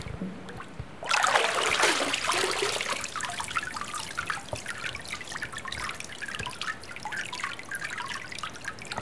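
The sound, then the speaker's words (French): Water pours and splashes loudly for a second or two after a papermaking mould is dipped into the vat, then settles into a steady patter of drips and trickles draining from the mould back into the vat, continuous, with no talking. “Et là, on entend justement l'eau qui, l'eau qui s'égoutte, qui s'égoutte du tamis, puisque nous, ce qu'on veut, euh, ce qu'on veut garder, ce sont les fibres.”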